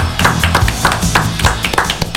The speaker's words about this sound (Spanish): ¿tenés aplauso, Seba? Mete aplauso, Adri.